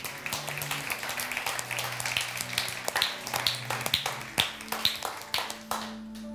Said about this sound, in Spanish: Denle un fuerte aplauso a su Dios.